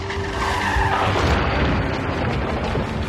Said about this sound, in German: Der Ford C-Max, den sie auf Renés Namen gemietet haben, fährt mit 69 Stundenkilometern frontal in einen 1998er VW Jetta.